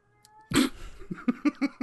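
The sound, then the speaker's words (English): A cat meows loudly: one long, harsh yowl, then a quick run of four short, evenly spaced meows, with no talking. “Covering the world of space sims, including stop that, stop that cat.”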